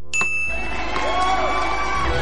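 A small handbell rings once, bright, its clear tone lingering and slowly fading while a crowd murmurs and cheers in the background.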